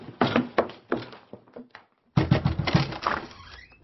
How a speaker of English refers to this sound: It's no good trying the connecting door